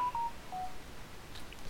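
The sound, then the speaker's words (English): A phone gives a few short electronic DTMF beeps, two quick tones and then one more, fairly quiet over a steady background hiss with no one speaking. “Sorry about that, guy. That's my phone.”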